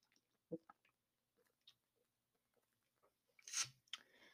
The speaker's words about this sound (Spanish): Si usted escuchó eso, estaba tragando agua, ¿eh? No se me espante.